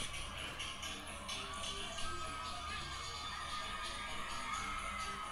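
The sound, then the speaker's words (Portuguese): A large, packed crowd shouting and cheering in a steady, dense roar that stays loud and continuous throughout, with scattered higher-pitched whoops and cries rising above the mass of voices. “A galera gritando.”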